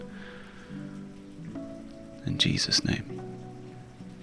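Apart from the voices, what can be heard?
light rain falling outside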